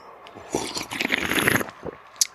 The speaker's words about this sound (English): I slurp a lot, guys, because I've actually been told by some listeners that they think it's funny. They laugh when they hear me slurping.